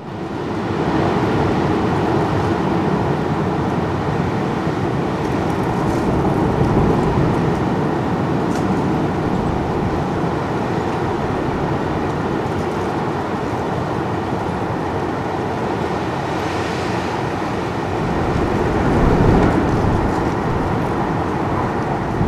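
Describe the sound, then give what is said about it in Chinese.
Wind roars through pine trees at a mountain campsite in clear, sunny weather, a steady, broad whooshing rush, much like sea waves or rain, swelling slightly toward the end with no voices. “像海浪聲的「松濤」”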